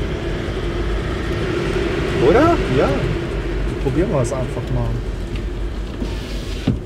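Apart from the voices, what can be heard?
car interior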